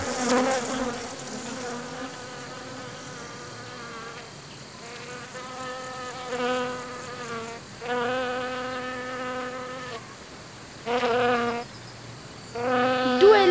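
A steady drone of bees buzzing, swelling and fading in waves as individual insects pass by, with no voices present.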